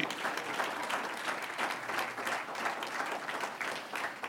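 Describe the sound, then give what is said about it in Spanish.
An audience at a sermon claps steadily for several seconds in honour of the risen Christ, a dense, even wash of many hands with no voices standing out above it. “Un aplauso al que vive.”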